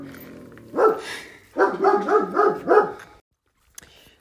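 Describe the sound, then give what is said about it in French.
A dog barks once, then lets out a quick run of four or five more barks in close succession, fairly loud, followed by quiet with a faint click. “La première chose que je vois en sortant du chemin, c'est une Super 5 et un chien.”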